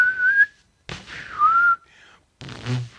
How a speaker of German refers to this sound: pfeift er so, pfeifen, ich pfeife jetzt mal äh, schön Beethoven